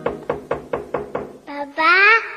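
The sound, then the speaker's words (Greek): Six sharp, evenly spaced knocks on a door ring out clear, followed by a child's voice calling out. “παπακά, κάποιο χτυπάει την πόρτα.”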